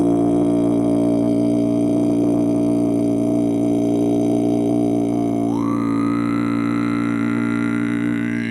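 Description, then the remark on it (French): A single low, sustained vocal drone hums steadily for several seconds, rich with buzzing overtones; partway through, a brighter overtone shifts upward while the deep tone holds, like a resonant Om chant. “L'idée, ouais, c'est de, par la vibration, d'essayer de.”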